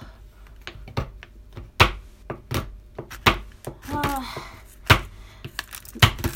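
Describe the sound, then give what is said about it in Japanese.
Sharp, irregular chops of a kitchen knife on a cutting board, cutting chocolate into small pieces in a quick uneven rhythm, fairly loud, with a brief sigh and a short voiced sound partway through. “で、あの、チョコレート細かく切って溶けやすいってことは、あの、分離とかなんか難しいことがわりかし緩和されて、口当たり良くなるみたいな。”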